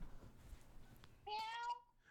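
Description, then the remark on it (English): A child's voice gives one drawn-out, rising-then-falling meow, mimicking a cat, after a moment of quiet. “Oh, you're doing the kitty?”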